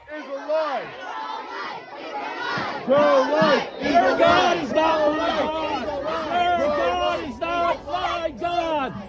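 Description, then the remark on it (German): A crowd of protesters at a demonstration in front of the Supreme Court, abortion supporters facing opponents, shouts angrily, many overlapping raised voices yelling continuously and loudly, with rising and falling cries throughout, recorded on a mobile phone. “Du hast Videos gemacht mit dem Handy während dieser Demonstration. Da treffen Abtreibungsbefürworter auf Gegner.”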